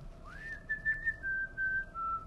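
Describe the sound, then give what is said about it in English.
Someone whistles a pop tune as part of a medley of whistles: a rising slide into a few sustained, clear notes that gently step downward, moderately loud over faint background hiss, with no talking. “a sudden we just hear this whistling, like all these places and different like f- iconic tunes that are whistled, like the Andy Griffith Show.”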